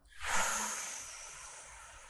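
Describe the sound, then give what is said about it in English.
A deep exhale through the open mouth after breathing in and holding the breath in a breathing exercise, a soft, airy rush of breath that swells quickly and then trails off gradually over about two seconds, with no talking. “Open the mouth and let it go.”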